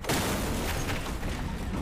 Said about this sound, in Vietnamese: Kèm theo đó là một tiếng nổ lớn Làm cho thầy văng ra phía sau ôm ngực miệng thổ huyết